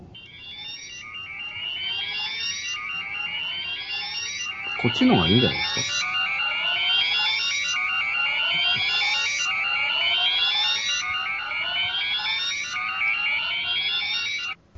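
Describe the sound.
A looping electronic warning alarm: repeated rising high-pitched sweeps roughly every second, steady and fairly loud throughout, with a short burst of speech partway through.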